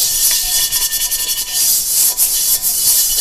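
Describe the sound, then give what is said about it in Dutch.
A stiff dish brush scrubs a wok in quick, rhythmic back-and-forth strokes, a bright scratchy bristle rasp that stays steady throughout, with no voices. “Ik was even een wok en dat maakt geluid.”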